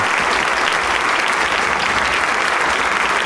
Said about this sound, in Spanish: Corríjame usted después si me equivoco, pero en el aplauso se siente la gran efusividad de la gente y del gusto por, por …. Y le digo público de todas las edades, jóvenes, personas mayores de edad.